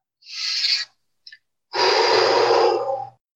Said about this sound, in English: And then what I want you to do is uh, close your eyes and then take a big breath in, big breath out.